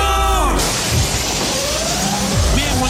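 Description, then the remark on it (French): A loud, brief crash of window glass being smashed, with bright ringing shards in the first half-second, followed by a steady wash of noise and a rising, wailing alarm-like tone. “Bonjour messieurs, pourquoi vous avez cassé la vitre”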